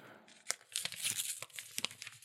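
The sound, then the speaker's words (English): A sealed paper envelope being torn open, a crisp ragged ripping with several sharp crackling bursts and crinkles over a couple of seconds, no talking. “I will vouch that he is actually opening a sealed envelope.”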